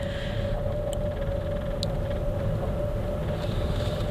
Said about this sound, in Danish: Øhm, men nu ruller vi altså ind på gårdspladsen, og jeg ved overhovedet ikke, om det er nogen god idé.